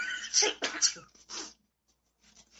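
A loud sneeze bursts out in a quick sharp rush of breath with a couple of follow-up blasts, then fades into near silence with faint breathing at the end.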